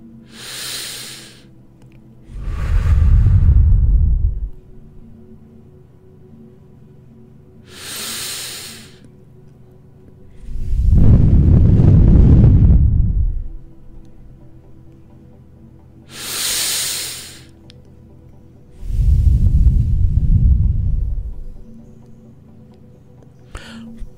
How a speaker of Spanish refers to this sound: Haz tres respiraciones profundas